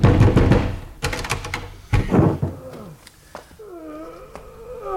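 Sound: rattling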